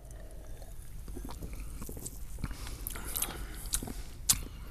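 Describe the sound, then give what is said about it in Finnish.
Someone drinking Dr Pepper soda: a series of quiet sips and swallows with faint fizzy crackle, ending in a sharper gulp or smack near the end. No one speaks. “Siis vanha kuin Dr. Pepper, joten kippis.”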